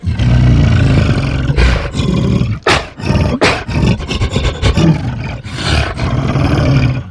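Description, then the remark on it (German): A monkey's roar run through a harmonizer, thick and pitch-shifted with layered, metallic overtones, loud and sustained in repeated bursts with no talking. “Das eben gehörte Affengebrüll durch den Harmonizer geschickt klingt dann so.”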